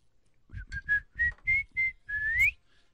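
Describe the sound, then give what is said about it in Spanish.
A person whistles a short tune of about seven clear notes, the last one sliding upward, fairly loud with no talking. “Eh, eh, chiflo, chiflo mucho.”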